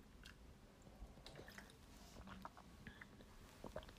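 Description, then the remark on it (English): Quiet sips of water followed by wet swallowing and small mouth clicks, a few gulps spread irregularly over a few seconds with no talking. “I'm just talking so much, and I need to drink water.”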